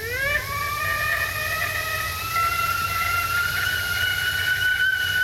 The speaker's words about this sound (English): I'd like to serve some tea right now. Warm the kettle.